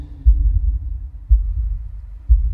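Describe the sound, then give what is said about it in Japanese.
A muffled, low heartbeat thumps three times at a slow, steady pace, about once a second, over a constant deep whooshing rumble. Nobody speaks. “この心音って。”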